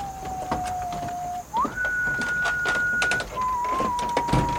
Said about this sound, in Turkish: Merdivenlerin ortasına geldiklerinde nedense ıslıkla bir şarkı tutturdu Tobias.